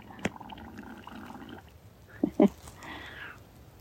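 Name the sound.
water bubbling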